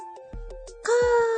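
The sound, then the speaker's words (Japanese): A voice mimics a deer call, a drawn-out nasal wailing cry that rises loud and holds steady, preceded by a few faint short vocal sounds. “鹿の鳴き声は、かーです。”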